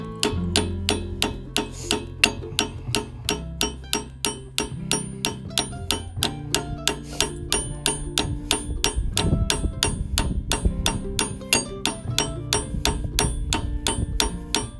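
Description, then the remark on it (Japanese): Sharp metallic clanging repeats in a steady, rapid rhythm of loud strikes, like a hammer on metal, as a chain is fitted onto a machine, continuing throughout with a low mechanical hum underneath and no talking. “結構このキンキンっていうのがね耳にくるんですよね”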